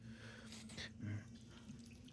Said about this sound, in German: Und dieses Tröpfeln halt, ne? Als, an den Wänden siehst du jetzt auch, dass jetzt hier auch Wasser runterläuft, wirklich schon.